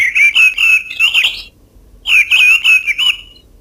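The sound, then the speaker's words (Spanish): A mistle thrush sings two short, fluting phrases separated by a brief pause, clear and fairly loud, with no other sounds around it. “Este es el zorzal charlo.”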